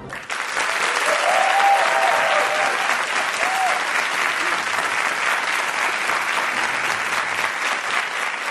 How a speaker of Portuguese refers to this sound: Senhoras e senhores, aplaudam uma das maiores bailarinas de todos os tempos, a brasileira Márcia Aidê.